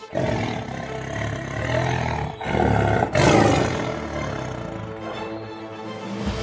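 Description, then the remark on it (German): A deep, rumbling tiger roar, used as a jingle, swells and rolls on for several seconds, loud, with a second surge midway; no one speaks over it. “Aber wir haben ja jetzt noch äh, eine neue Kategorie übrigens. Ja, und es ist zwar äh, die Tiger-Kategorie.”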